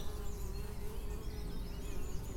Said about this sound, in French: Et on a aussi quatre ruches où euh, nos abeilles sont en train de nous concocter un délicieux nectar doré.